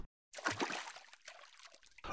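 A boy's foot stomps into a shallow puddle of water on the way to a bus stop with a sharp splash, soaking his shoe, followed by a trickling, sloshing tail of water that fades off; no voices are heard.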